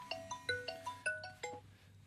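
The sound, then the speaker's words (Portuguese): A phone ringtone plays a quick melody of about seven bright electronic notes in an even rhythm, moderately loud, over a faint low hum with no one speaking. “Já, já desligamos o telefone.”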